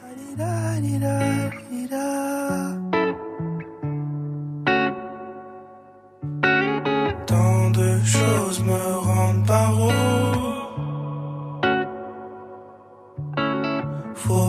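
A rap track, a newly released single played on Studio 41, plays loud, its instrumental intro built on deep sustained bass notes and heavily processed, effects-laden melodic layers that swell and drop out in short sections.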